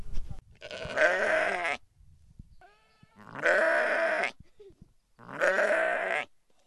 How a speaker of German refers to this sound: Und wir gehen hier lang zu den Schafen. An dem, an dem Schafzaun ist Strom dran. Fass den nicht an. Hier sind Schafe. Vielleicht schaffen wir es, ein paar Geräusche aufzunehmen.